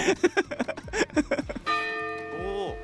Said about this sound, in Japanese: これあれですよね北海道で最も有名な鐘ですよね